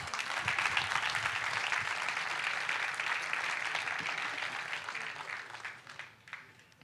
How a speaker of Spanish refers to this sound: Deme un aplauso.